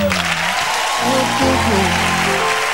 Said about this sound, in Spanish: Un aplauso para Guada, olvidá.